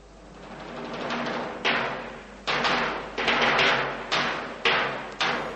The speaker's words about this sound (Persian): و اما صدای تبلای بزرگ علامت شکارچی است.